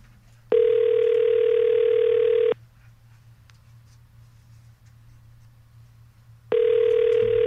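A telephone ringback tone heard on an outgoing call: a steady electronic tone lasting about two seconds, a long pause with faint background hum, then the tone starting again.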